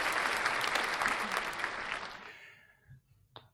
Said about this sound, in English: Okay, there was Did some, you get, there was some applause there. Some applause. That's it.